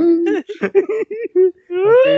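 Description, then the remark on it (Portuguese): A person imitates a whimpering cry, voicing a string of short, wavering sobbing sounds before drawing out into a longer rising wail at the end. “Como é que eu choro aí?”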